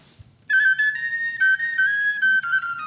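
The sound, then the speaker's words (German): A loud, shrill wind-instrument melody of traditional music plays alone after a brief quiet moment, holding long piercing notes that slide and shift in pitch with a few short breaks. “Also das ist nicht das Lied, das ist so eine musikalische Komposition, traditionelle Komposition.”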